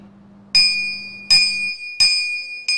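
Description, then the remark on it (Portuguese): A school bell rings, a ring not heard for nearly a year and two months because of the Covid-19 pandemic, with four loud, evenly spaced strikes, each a bright metallic clang that lingers with a high ringing tone. A low hum sits underneath at first, and no one speaks. “É um toque que não se ouve há quase um ano e dois meses por conta da pandemia da Covid-19.”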